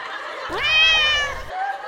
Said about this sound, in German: Hier ist nur eine fette Mieze. Miau.